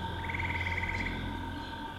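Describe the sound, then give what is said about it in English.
Insects buzz in a steady, layered drone over a humid swamp backdrop, with a rapid pulsing trill rising briefly in the first second. The chorus is constant and moderately loud, with no voices. “You hear the buzzing of insects.”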